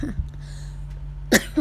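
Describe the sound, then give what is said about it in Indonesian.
A short, sharp cough bursts out near the end, followed by a smaller second cough, both rising over a steady low hum that fills the otherwise quiet moment. “Maaf batuk.”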